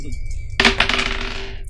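Dice, including positive dice in a tabletop role-playing game, clatter across a hard tabletop in a quick, rattling burst of sharp clicks that settles after about a second, with no one talking.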